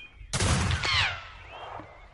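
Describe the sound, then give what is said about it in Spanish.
A single sharp pistol shot in a duel, the two contenders standing 10 metres apart, cracks out loud, its bright burst trailing into a short ringing echo that fades over about a second, with no voices. “se sorteó el turno de disparo y la suerte quiso que primero el primero en disparar fuera el Borbón”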